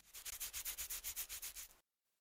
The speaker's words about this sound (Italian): Allora diventa pensieroso e dimenticando le regole del Galateo, tira fuori una mano dalla tasca e si dà una lunghissima grattatina di capo.